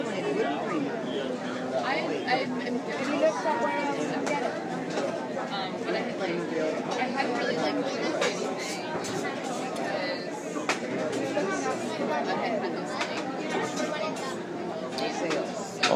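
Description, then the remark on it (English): Dense crowd chatter from a live studio audience fills the whole recording, many overlapping conversations blending into a steady, fairly loud babble with no single voice standing out. “All kinds of conversations to be found here.”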